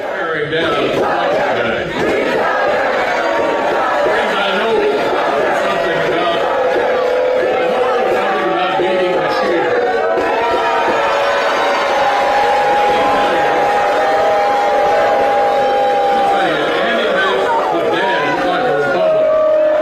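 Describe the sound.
A large audience of right-wingers and left-wingers boos Mitch McConnell with sustained, overlapping voices, a dense wall of loud disapproving noise that swells and holds steady for about twenty seconds, with some drawn-out tones rising above the din.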